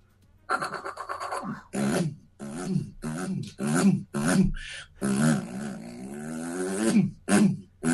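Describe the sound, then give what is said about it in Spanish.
A voice imitates the rear-mounted engine of a Fiat 600 car with a series of gruff, buzzing vocal bursts that rise and fall in pitch, like revving and shifting, going forward and in reverse, ending in a longer sustained drone. “No, eh, Fiat 600 motor trasero, un sonido muy particular.”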